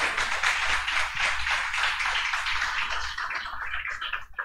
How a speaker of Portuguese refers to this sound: Aplauda o Senhor aí.